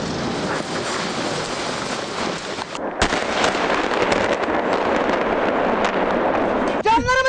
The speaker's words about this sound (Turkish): Ancak şu an için patlamanın neden kaynaklandığı şu an için netleşmedi. Araştırılırken neden patladığına dair e, tüm açıklamaları da sizlerle buluşturmak istiyoruz.